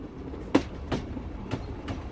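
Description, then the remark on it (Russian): An open-plan third-class sleeper (platskart) train car rumbles steadily along the rails, with sharp rhythmic clacks from the wheels hitting track joints roughly every half second. No one speaks. “и я села в свой вагон. Это был плацкарт.”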